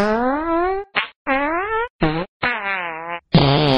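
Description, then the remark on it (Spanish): A rapid string of about six loud fart sounds in a trailer for the film Super Pedos, each a buzzy, wavering blast of varying length and pitch, separated by brief silences, with no talking. “Llega Super Pedos.”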